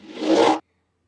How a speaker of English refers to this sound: That's the sound it makes, by the way. No, this is pod racing.